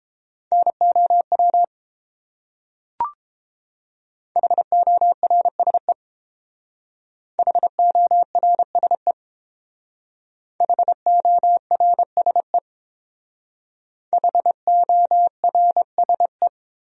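Morse code at about 22 words per minute sending common words from a top-300 word list: five quick bursts of dots and dashes on one steady mid-pitched tone, each burst separated by a short silence, with a single click early on and no voices.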